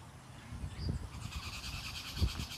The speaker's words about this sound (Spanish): Él está presente en todo, en el aire que respiramos, en estas aves que están volando por aquí.